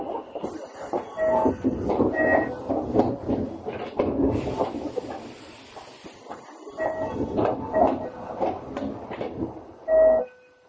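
A Tokyo Metro 7000 series subway train running between Shin-Kiba and Nerima, a local service through to the Seibu line bound for Shakujii-kōen, with a steady rumbling drone, rattling clacks and a few high whining tones, swelling and easing as it moves, then a short loud burst at the end.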